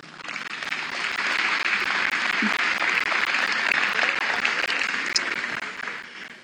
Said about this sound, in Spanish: Denle un aplauso a mi amado.